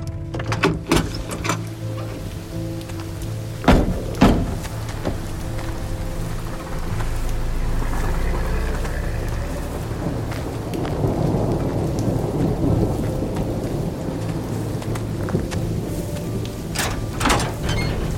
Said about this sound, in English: storm has knocked out all our power.